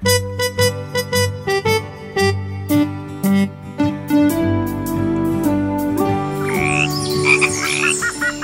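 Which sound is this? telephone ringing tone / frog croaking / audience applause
frog croaking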